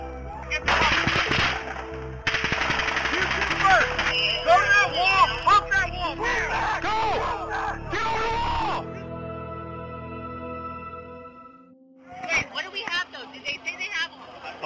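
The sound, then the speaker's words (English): Rapid bursts of automatic gunfire crack through the first half, loud, echoing through the Strip as police officers are pinned down, recorded on an officer's body camera, mixed with shouting voices; then the shooting stops, leaving a low hum before talking resumes. “The officers are pinned down by automatic gunfire.”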